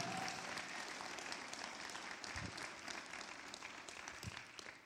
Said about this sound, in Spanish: En el nombre de Jesús, si usted lo cree, denle un aplauso fuerte a Jesús. Esta mañana vamos, dale un aplauso fuerte a Jesús.